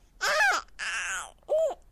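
A baby less than 100 days old coos and babbles in three short, tuneful vocal bursts, the last one briefest, with no one else talking.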